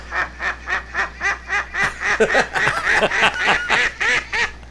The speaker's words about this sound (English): I guess it's a real duck. It sound, Sounds like a real one.